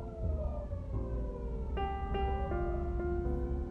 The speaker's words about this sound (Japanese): 消防車も来るわ